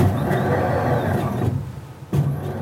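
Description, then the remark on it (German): An overhead book scanner in a darkened room whirs steadily as it scans a page of a rare library item being digitized, a mechanical motor hum that fades briefly before a short clunk and renewed whirring at the end. No voices. “Dafür tasten in abgedunkelten Räumen Handauflagescanner die Seiten ab.”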